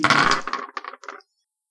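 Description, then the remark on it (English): Dice rolling across a hard tabletop: a dense clatter that thins into a few separate knocks as they settle, stopping after about a second. No voices. “there's just something about rolling dice, you know, man.”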